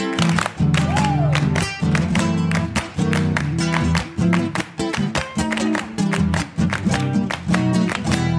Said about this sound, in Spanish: ¡Palmas!